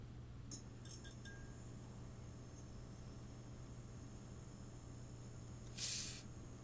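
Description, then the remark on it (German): A faint, steady electrical hiss from the dimmer of a stage spotlight, with a thin high whine over a low hum, a few small clicks early on and a brief swell of hissing near the end. “Der Dimmer macht, glaube ich, ziemlich fiese Geräusche.”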